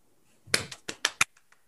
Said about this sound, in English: It's his cheeks. Yeah, oh. my cheeks slapping. it's his cheek slapping.